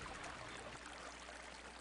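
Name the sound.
creek water flowing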